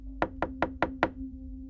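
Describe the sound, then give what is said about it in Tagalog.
Five evenly spaced knocks on a house door, sharp and rapping in a steady rhythm over a low constant hum, with no voices. “Tinulungan kong makababa ng kotse si Ivy pagkatapos ay kumatok na ako sa bahay nila.”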